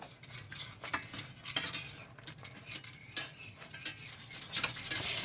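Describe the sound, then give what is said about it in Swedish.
Real dark chocolate, 70 percent, is poured and stirred in a pot, with repeated scraping and clinking of a utensil against metal in an uneven rhythm, bright high-pitched taps over a soft low rumble, no talking. “Och så häller vi bara i det här nu då.”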